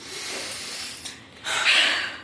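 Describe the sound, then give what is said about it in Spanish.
A voice imitates heavy, exasperated breathing: a long breathy exhale, a brief pause, then a louder, harsher rush of air, like an annoyed huff. No words are spoken. “Y luego la respiración así de...”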